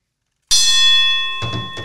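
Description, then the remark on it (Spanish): A bell is struck once, loud, its bright metallic tone ringing on and slowly fading, with a couple of dull knocks sounding near the end. “Bueno, hay que tocar la campana.”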